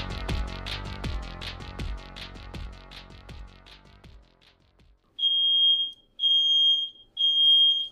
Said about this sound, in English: Uh-oh. Oh yeah. did, you, did you just set off a fire alarm? yeah. One second.